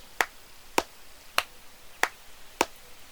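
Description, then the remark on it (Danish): Five sharp, evenly spaced hand claps ring out on their own against a quiet background, each one crisp. “Man skulle klappe fem gange og bukke for bysten for at vække den.”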